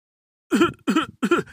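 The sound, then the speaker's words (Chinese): A voice imitates the coughing of rooster fathers sick with colds in a children's story: three forceful, evenly spaced cough bursts, each with a throaty, voiced rasp, followed by a short softer trailing cough, all fairly loud with no other talking. “公鸡爸爸们咳嗽不打鸣儿了，阿嚏阿嚏，”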